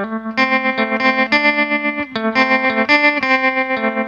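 A distorted, surf-style electric guitar plays a loud, steady riff of quickly picked repeating notes with effects-laden, ringing sustain, with no voices.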